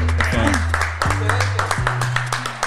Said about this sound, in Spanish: Un aplauso, Corillo, muy, muy, muy bueno.